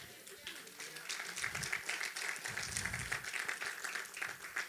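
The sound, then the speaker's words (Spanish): An audience applauds the Lord with steady, dense clapping that fills the whole stretch, a bright crackling wash without pauses, with a few low voices murmuring underneath. “de un aplauso al Señor.”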